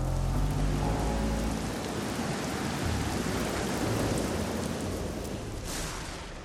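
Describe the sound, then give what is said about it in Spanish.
Steady, heavy rain pours down onto a rain-flooded street with water running along the gutter, a dense continuous hiss with a deep rumble underneath in the opening seconds, loud with no voices. “El terror comenzó con un barco de papel que flotaba a lo largo del arroyo de una calle anegada de lluvia.”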